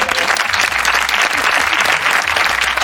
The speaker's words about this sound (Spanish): Qué mal, pero desde acá le mandamos un abrazo, un aplauso fuerte.